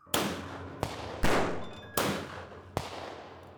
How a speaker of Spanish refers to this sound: Muy poco después de separarse de sus compañeros, una patrulla de policía localizó a los fugitivos y se inició un tiroteo.